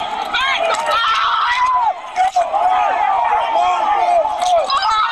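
A loud, chaotic melee recorded on a police officer's body camera as rioters at the Capitol drag and attack him: many voices shouting and yelling over one another without pause, with jostling and scuffling throughout and a brief dip in the din about two seconds in.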